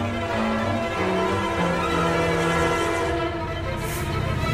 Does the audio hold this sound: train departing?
yes